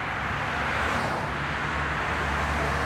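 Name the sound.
highway traffic noise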